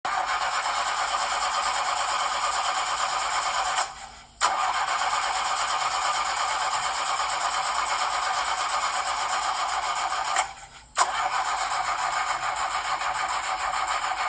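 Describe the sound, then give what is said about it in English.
A car engine cranks over and over without catching, a loud, steady whirring grind, broken by two brief pauses before the starter tries again. “If you're like me, the first thing that goes through your mind is how much is this going to cost me? especially if you have a newer vehicle with all of the new technology that comes in them these days.”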